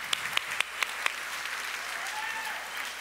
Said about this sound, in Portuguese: Vamos aplaudir essa galera da Família On aí, tá com a gente.